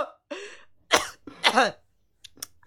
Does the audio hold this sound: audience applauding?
no